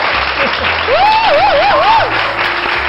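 An audience applauds steadily and loudly to welcome the pastors and church officers seated among them, a dense wash of clapping throughout, with a whooping cheer rising and wavering over it in the middle.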